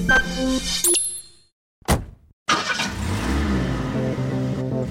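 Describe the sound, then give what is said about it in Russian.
A car engine cranks with a short burst, falls silent for a moment, then catches and settles into a steady rumble with rising revs. “It's the universal sound of freedom, but everyone uses their car differently.”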